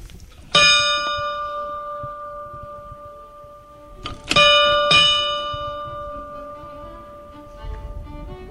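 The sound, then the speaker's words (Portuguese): The entrance bell of the Casa do Cipreste, the house Raulino built, rings three times, one bright strike followed by two close together, each tone lingering and slowly fading. “eu vou-lhe pedir que me faça ouvir o sino que me vai fazer entrar de novo nesta casa de beleza profunda.”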